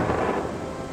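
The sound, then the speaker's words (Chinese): A thunderstorm at night with wind: deep rolling thunder rumbles over a steady hiss of heavy rain, loud and continuous throughout the short moment, with no voices. “在那个风雨交加的夜晚，十岁的罗斯亲眼看到妈妈用一个蓝色宽口大玻璃瓶，把一道将天空劈成了两半的闪电抓了起来。”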